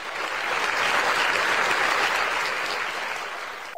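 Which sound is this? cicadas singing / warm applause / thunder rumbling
warm applause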